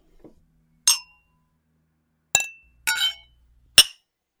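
Glasses clinking in a toast of condolence: four bright, ringing clinks spread over a few seconds, the last two close together, with a faint soft knock at the start and no voices.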